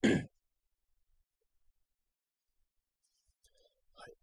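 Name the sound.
throat clearing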